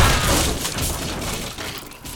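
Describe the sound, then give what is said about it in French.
A loud crash of a cannonball impact, with a deep boom and shattering, breaking debris that keeps rumbling and clattering for a couple of seconds before easing off slightly. “Une réponse Boulet de canon Attention”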